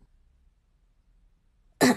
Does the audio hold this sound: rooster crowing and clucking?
no